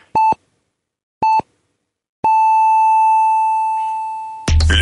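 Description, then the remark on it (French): A telephone line beep tone as the phone line is unplugged: two short electronic beeps, then a long, steady, slowly fading tone that is abruptly cut off by a loud burst of noise. “fait qu'attention, je débranche la ligne du téléphone.”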